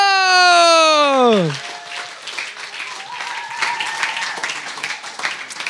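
A gliding tone sweeps downward and fades, then a studio audience breaks into steady, fairly loud applause that continues to the end, dense clapping with no single claps standing out.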